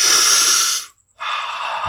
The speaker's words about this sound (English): I mean, one sharp breath like that brings you back to the moment.